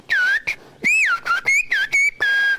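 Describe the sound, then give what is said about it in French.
A single loud whistler renders Occitan speech as whistled language: a quick string of six or seven syllable-like bursts with gliding, bending pitches and short gaps, and no spoken voice. “siffler tout en parlant, ou, parler tout en sifflant”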